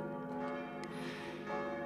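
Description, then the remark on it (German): Six church bells in a parish church tower, with a total weight of almost four and a half tonnes and dating from the 14th to 18th centuries, ring out in a rich, sustained peal, several tones overlapping and resonating steadily with no voices present. “Die sechs Glocken mit einem Gesamtgewicht von fast viereinhalb Tonnen stammen aus dem 14.”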